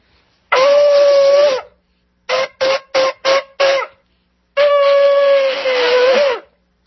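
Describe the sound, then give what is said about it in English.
A ram's horn shofar blares loudly: one sustained brassy blast, then five short staccato bursts in quick succession, and a final long held note with a slight wavering pitch at the end. “That's the sound of the blowing of the shofar, which is done in the Jewish liturgy on on um, certain feast days and on the new moon and so forth.”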